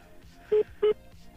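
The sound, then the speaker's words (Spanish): Two short, loud telephone dialing tones beep in quick succession during a call attempt, each a steady electronic pitch lasting about a tenth of a second, over a faint background murmur. “es que lo tenemos vía telefónica.”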